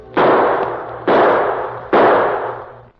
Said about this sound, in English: And then, as he desperately shot his gun into the air